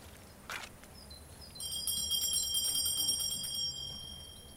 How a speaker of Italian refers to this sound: Eh, sempre questi ragazzati suonano il campanello e poi se ne vanno.